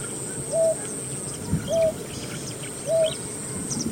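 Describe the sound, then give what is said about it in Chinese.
A painted snipe, a bird that lives by the water, calling at night: three short, hollow hooting notes, evenly spaced about a second apart, each rising slightly then falling, over a steady low background hiss. “比如说彩玉，它也是一种生活在水边的鸟， 嗯 它晚上也会叫。”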